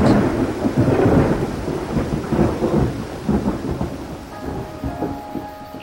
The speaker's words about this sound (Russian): В этот момент вокруг потемнело. Грянул гром, и начался проливной дождь.